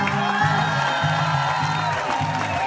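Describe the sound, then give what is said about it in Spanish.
A crowd applauds and cheers loudly and without a break for the Chilean poet Raúl Zurita at a poetry festival, a dense wash of clapping and shouts filling the whole stretch, with a steady rhythmic low thumping underneath. “Un aplauso para el maestro en la poesía.”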